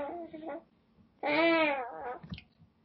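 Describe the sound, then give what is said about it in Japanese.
A cat lets out a couple of meows, one short and one long and drawn-out, clear, with a soft human murmur in between. “これな、何が欲しいんや。これお腹すいたんかな。”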